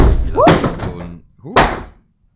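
A door bursts open with a loud bang, followed about a second later by a second forceful slam, each preceded by a brief rising squeal and trailing off into a short rumble.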